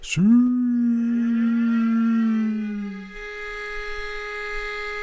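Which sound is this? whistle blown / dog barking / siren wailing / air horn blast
siren wailing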